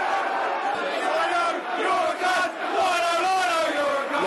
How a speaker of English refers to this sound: has provoked a, a volley of, a volley of uh, tirade of abuse for the linesman. He's been taking it all afternoon.